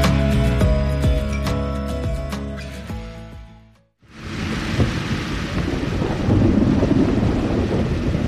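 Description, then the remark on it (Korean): Music plays, then briefly drops out and a sudden rain shower bursts in after bright sunshine: a loud, dense, steady downpour with a deep rumble beneath it, and no one speaking. “아 해가 쨍하더니 갑자기 파군네 아, 어, 소나기 같은데.”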